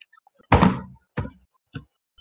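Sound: door being opened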